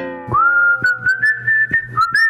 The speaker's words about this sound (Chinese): 林道龙捂着红红的脸站了起来，霸王龙鲍当当和小海星吹着口哨移开了视线。